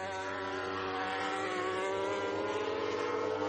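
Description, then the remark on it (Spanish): MotoGP racing motorcycles scream at high revs during the 2014 race at Brno, passing the finish line in a loud, continuous whine, pitch climbing slightly as the bikes accelerate, with no one talking over them. “MotoGP 2014 Carrera 11 - Brno parte 2”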